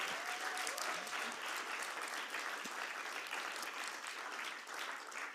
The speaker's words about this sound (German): Und lass uns doch Ihnen heute Morgen, auch wenn du zu Hause bist und dort zuguckst, einen Applaus geben. Einfach als Danke.